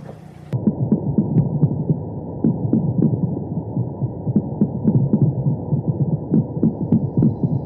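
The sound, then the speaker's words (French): Underwater recording of brown meagre fish drumming: a steady, rapid series of low, throbbing knocks, continuous and rhythmic like a machine gun, with faint scattered clicks and crackles above from invertebrates covering the seabed. “À l'intérieur de ce crépitement, j'entends donc euh, des bruits de tambour euh, qui doivent être euh, un mal de corbe.”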